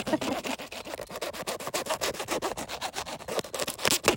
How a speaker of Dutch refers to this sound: ik eh, ga eerst nog even mijn stokbrood snijden